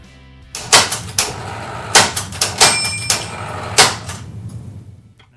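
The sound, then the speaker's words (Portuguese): Crisp typewriter keys clack in an uneven burst of about ten strikes, with a brief bright bell ding partway through, then the sound fades out. No voices. “Pega a sua máquina de escrever e vem com a gente.”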